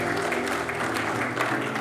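audience clapping in praise

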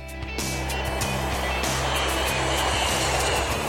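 airplane sound effect

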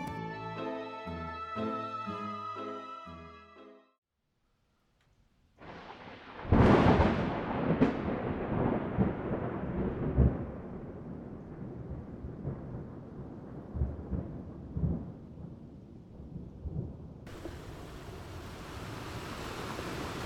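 thunderstorm with rolling thunder

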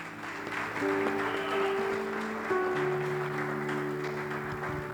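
audience applauding

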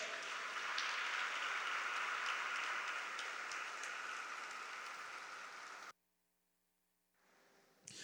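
audience applauding

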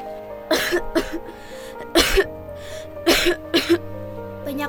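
woman coughing repeatedly

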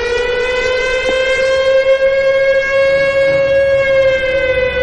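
air raid siren wailing

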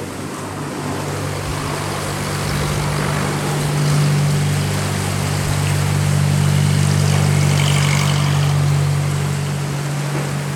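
small airplane engine running

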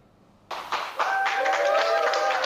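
round of applause

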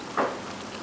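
rain falling

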